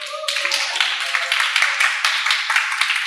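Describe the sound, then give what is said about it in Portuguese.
Applause from an audience of an estimated 5,000 people, a dense wash of many hands clapping at once, holding steady and loud for about three seconds with a slight rise and fall and no voices over it. “Palmas aí, galera.”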